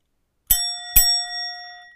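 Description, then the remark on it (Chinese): A desk service bell, used for training a pet dog, is struck twice, about half a second apart, each ding a bright metallic hit that leaves high, clear tones ringing and slowly fading. No one speaks. “服务铃，所以我想要训练我的小狗，就是按了当当之后，我们才会让它去那个阳台晒太阳。”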